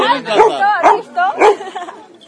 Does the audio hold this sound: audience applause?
no